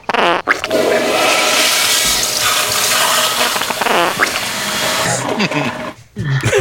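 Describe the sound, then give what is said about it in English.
A loud toilet flush roars and rushes steadily for several seconds, mixed with sputtering, gurgling bursts, then cuts off briefly before a final splash of noise. “Uh, we'll just do the the shart with the uh, uh, flush.”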